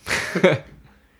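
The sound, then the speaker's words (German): A single short sneeze bursts out, a breathy rush that ends in a sharp voiced snap, then fades into quiet. “Die Lunge niest”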